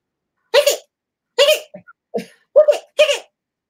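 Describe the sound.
A voice imitates a squeaky toy with a series of about six short, nasal squeaks, loud, spaced irregularly with brief pauses between them.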